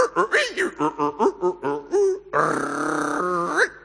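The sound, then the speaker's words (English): A voice imitates a 1990s dial-up modem connecting to the internet: a quick run of choppy, beeping vocal bursts, then a sustained harsh, buzzing screech, loud, with no actual words. “back in the 90s, you go over, you unplug your phone cable from the connection, you plug in your modem, you go over to your computer, you start something.”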